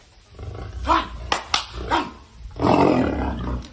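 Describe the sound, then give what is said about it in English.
A caged tiger growls in several rough, rumbling bursts as a man reaches through the cage to pet its mouth, the last growl long and loud, with brief sharp clatters in between. “Ladies and gentlemen, some asshole decided, hey, I want to pet a tiger through a cage right on its mouth.”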